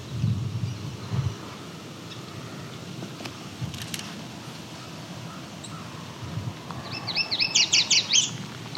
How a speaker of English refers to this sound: that's definitely yellow warbler.